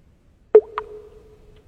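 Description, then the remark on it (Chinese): A single sharp drip of water lands with a ringing, mid-pitched plop that fades slowly, followed moments later by a second, lighter droplet. No voices. “每一滴水都在唱给我听”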